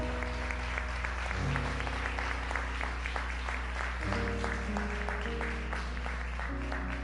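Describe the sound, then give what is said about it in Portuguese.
An audience claps steadily in praise to God during a communion service, dense rapid applause over sustained organ or keyboard chords that shift pitch partway through, with a low steady hum underneath. “Dá uma salva de palmas a Deus aí para o copinho aí.”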